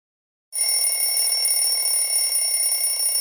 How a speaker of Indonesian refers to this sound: alarm aduh aduh kok tiba-tiba udah jam segini aja sih aduh.